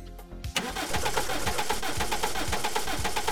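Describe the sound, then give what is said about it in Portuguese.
A voice imitates a car engine cranking without catching: a steady, rapid rur-rur-rur churning that starts abruptly after a brief quiet moment and holds at a constant, fairly loud level without ever firing up. “Ele, a gente vai girar a chave e não vai acontecer nada.”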